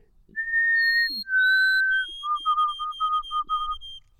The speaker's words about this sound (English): I hear a white throated sparrow. Old Sam Peabody, Peabody, Peabody.